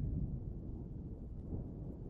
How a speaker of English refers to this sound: I'll leave the thunder here for you for a little bit longer.